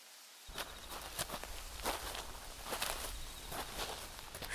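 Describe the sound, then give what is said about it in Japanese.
Two people's footsteps crunch over rustly ground at a slow, cautious pace as they approach a hut, a dozen or so steps in steady rhythm, moderately loud, with no voices. “二人は恐る恐る小屋に近づきました窓からランプの明かりがほのかに漏れており中から物音が聞こえます”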